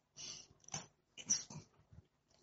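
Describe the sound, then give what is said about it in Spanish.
A small female pet dog yaps in shrill, high-pitched bursts, four or five sharp barks in an uneven rhythm, somewhat breathy and fairly quiet, with no one speaking. “Lamentablemente hay uno que tiene una vocecita muy chillona. Y entonces cuando ella ladra, ¡guau! eso se me mete a mí en el tímpano que yo, oye, oye,”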